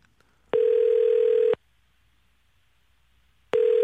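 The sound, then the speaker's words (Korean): A telephone ringback tone plays alone as a call is placed to a woman's mobile phone: a steady electronic tone lasting about a second, then two seconds of silence, then it begins again, clear. “한번 전화 한번 걸어보겠습니다.”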